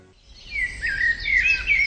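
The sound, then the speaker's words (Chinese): A red-breasted robin perched on a small tree calling, a run of high, warbling chirps and whistles that rise in strength after a quiet start and continue steadily, with a low rumble underneath and no talking. “北飞的红腹知更鸟停在一棵小树上，它向下喊”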